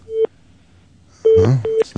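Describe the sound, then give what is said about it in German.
Short, rapid telephone line tones sound in quick bursts, a steady pitched beep followed by a cluster of fast repeating tones, fairly loud, with no voices. “Vielleicht ein sehr nervöses Freizeichen.”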